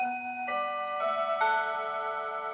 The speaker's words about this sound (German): Ich frage Francesco Piemontesi, ob er meinen Eindruck teilt, dass sich das Big Ben Glockenspiel der Standuhr in der Villa Senar irgendwie in die Paganini Rhapsodie hineingeschlichen hat.